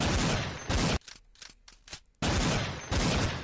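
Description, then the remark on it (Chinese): Sustained bursts of rapid gunfire, then about half a dozen separate sharp shots, then another dense loud volley. No one speaks. “有没有射击的感觉？”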